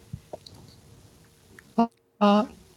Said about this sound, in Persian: به خدا صدای این قاشق مال من نیست نه این منم چرا زیاده پس صداش این قاشق صداش زیاد بشه ترسیدم